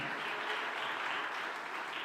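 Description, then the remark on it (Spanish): An audience applauds the Lord together in a steady, dense wash of clapping that holds an even level throughout, with no voices standing out above it. “Vamos, denle un aplauso fuerte al Señor.”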